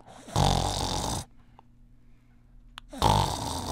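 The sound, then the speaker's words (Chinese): A person imitates snoring with two loud, low, rasping snores separated by a quiet pause, steady and regular like rhythmic sleep snoring, a monotonous low-frequency snore. “呃，通常我们说打鼾或打呼，呃，如果说从声音的本质来看，如果你是一个低频率的，而且很单调的一个打呼哦，比如说你的打呼声一直是很规律性的”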